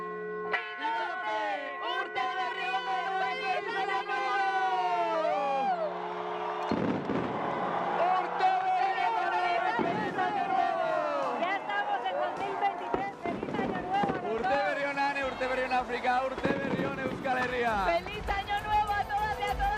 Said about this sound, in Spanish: Así eufóricos daban la bienvenida al año 2023 nuestros compañeros y compañeras de TV que retransmitían las campanadas desde la Plaza Nueva de Vitoria-Gasteiz.